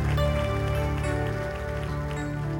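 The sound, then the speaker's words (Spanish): An audience applauds the Father of Mercy at the close of a prayer, in a steady, dense wash of clapping that holds at an even loudness throughout, with a sustained low musical tone humming underneath. “Todos damos un aplauso al Padre de Misericordia”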